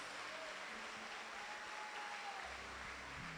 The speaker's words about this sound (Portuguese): Dê uma salva de palmas bem forte ao Senhor Jesus.